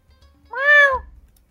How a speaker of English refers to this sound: Hmm? Did, was that what a meow? That? What was that? And you look around, and there is a, a displacer beast kitten that is sitting on the ground near all of you, looking up at all of you with curiosity.